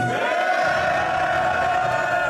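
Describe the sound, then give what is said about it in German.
A crowd at a rap battle event roars and cheers for an MC in a steady, dense wash of voices, loud and sustained for a couple of seconds with no single voice standing out. “Macht nochmal Lärm für Destiny.”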